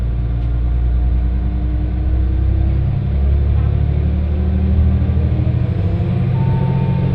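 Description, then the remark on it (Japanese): A one-man train bound for Fukui running, heard from inside: a steady, loud low rumble with engine drone and faint rattling, unbroken for the whole stretch, with no voices. “この列車は福井行きワンマンカーです”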